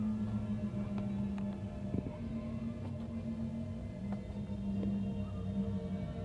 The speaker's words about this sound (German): Im Haus des Kyrios Panos heult der Wind.